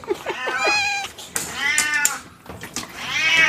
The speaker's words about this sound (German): Wir haben also auch einen Kater mit, mit Diabetes hier auf dem Grundstück.